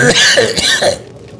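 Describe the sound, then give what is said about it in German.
A person imitates a wet, phlegmy cough: a loud burst of rough hacking lasting about a second, then quiet. “Also ja, es ist ein, ein, ein nasser Husten, den ich ja. da gemacht habe.”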